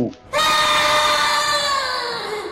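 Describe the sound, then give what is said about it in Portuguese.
A voice imitates the shrill, piercing scream of a female creature struck in the middle of the chest, one loud sustained high-pitched cry held for about two seconds after a brief pause, slowly fading toward the end. “Quando ela dá esse grito estridente, a menininha também grita.”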